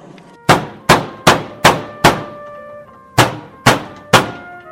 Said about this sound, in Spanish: vaya a ver quién toca la puerta.